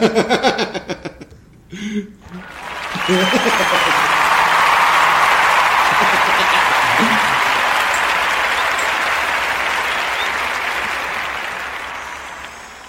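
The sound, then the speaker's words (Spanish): Loud, sustained audience applause on a special program, welcoming someone back on their return, swells after a few seconds of talking and holds steady as a dense wash of clapping for about ten seconds, fading slightly at the end. “toda la audiencia, vamos a darte otro aplauso porque ya regresaste.”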